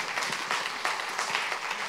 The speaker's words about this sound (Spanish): No, gracias, de verdad que eh, un fuerte aplauso, ¿verdad?